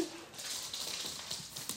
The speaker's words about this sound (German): da kommt jetzt gerade mein Hund angelaufen.